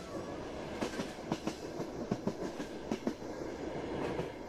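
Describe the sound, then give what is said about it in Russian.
The Alishan forest railway train rolls steadily up Mount Ali, its wheels knocking out a rhythmic clickety-clack of sharp, evenly spaced beats over a continuous rumbling hiss, with no voices. “Алишанский поезд мчит вас по горе, богатой флорой и фауной.”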